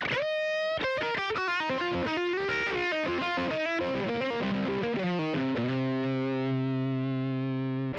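A distorted rock guitar plays a rapid, descending run of chords and notes, then settles into a sustained, ringing final chord that holds to the end, loud and without any voices.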